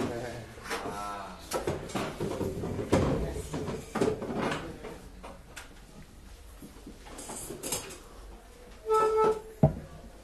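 A chair scrapes and bumps across a hard floor as it is dragged and set into place for someone to sit on, with several knocks and rattles, while people murmur around it.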